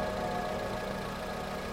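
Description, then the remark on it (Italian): A car engine idles steadily, a continuous low rumble with a faint mechanical hum and no voices, as the car arrives carrying a woman, her brothers and her mother. “Vedo arrivare la macchina con lei, i suoi fratelli e sua madre dentro.”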